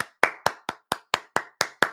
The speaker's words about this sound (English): hey, I'm going to give you a clap on the show, buddy, because that that's next level stuff.